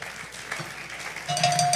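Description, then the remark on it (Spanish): A crowd applauds in a steady, dense patter of clapping that swells louder for the last half second, joined by a sustained high whistle-like tone. “Denle un aplauso al hermano.”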